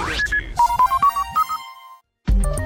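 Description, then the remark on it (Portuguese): Rádio Bandeirantes time signal beeps marking 7:30: a quick run of about ten short, clear electronic pips that step slightly upward in pitch, followed by a brief silence before another sound starts. “O quinto sinal vai marcar 7 horas e 30 minutos.”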